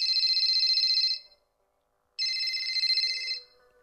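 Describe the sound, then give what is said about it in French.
A telephone rings twice as a judge calls an analysis laboratory, each ring a steady bright trill lasting about a second, separated by a silent gap, heard clearly with no one speaking. “Madame la juge téléphone au laboratoire d'analyse qui a travaillé avec celui de Londres pour avoir une confirmation.”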